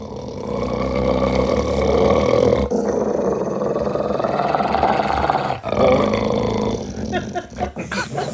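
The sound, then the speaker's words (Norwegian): A large dog named Henry, an ordinary dog, growls deeply and loudly, a rumbling, sustained snarl broken into three long stretches by brief pauses for breath, with no one talking. “Men det der er det villeste altså, lyden. Det, er en helt vanlig hund.”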